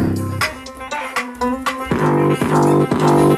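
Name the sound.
music beat playing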